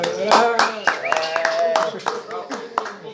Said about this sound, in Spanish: ahora sí que un aplauso para él, por favor.